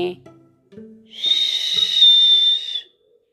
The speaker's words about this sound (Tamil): ஒரு நாள் அவங்க அடுப்பு மேலே குக்கரை வச்சுருந்தத மறந்து போய் வெளியில் சோறு ஊட்டுறதுக்கு கிளம்பி போயிட்டாங்க குக்கர் கொஞ்ச நேரமானா விசில் அடிக்குமே